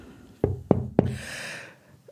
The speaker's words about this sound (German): Und wenn es Ihnen auch so geht, dass Sie einen dieser Sätze wiedererkennen, dann klopfen Sie und wir sprechen kurz drüber.